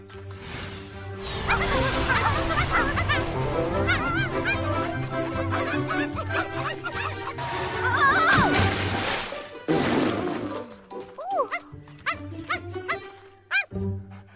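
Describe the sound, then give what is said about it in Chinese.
A small dog barks and yips repeatedly in quick, high-pitched bursts while being coaxed to come down, over a busy, layered background, with a short pause near the end before a final yelp. “下来，小狗，请你下来吧。”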